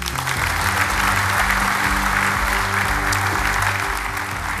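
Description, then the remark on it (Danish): Sustained applause from a large audience at the Conservative Party's national council (landsråd) in the autumn, after Søren Pape Poulsen's speech. A dense, steady wash of clapping holds at an even, fairly loud level throughout without pause, with a faint low murmur beneath. “Det, der klappede de af ham, det var de konservative landsråd i efteråret.”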